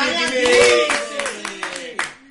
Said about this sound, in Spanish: Bueno, perfecto. Y un aplauso para el señor